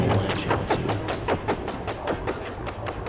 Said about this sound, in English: I'm running into the Chronoblob two, uh, the the ping pong delay